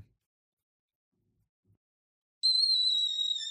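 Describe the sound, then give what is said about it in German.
After a stretch of near silence, a kettle on a gas stove suddenly starts whistling late in the evening: a loud, steady, high-pitched tone that holds without a break and keeps going until the end. “Der pfeifende Kessel auf dem Gasherd riss Rasmus am späten Abend aus seinen Gedanken.”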